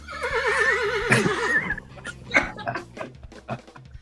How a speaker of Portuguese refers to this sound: Aí entra assim, só de som relincho, né?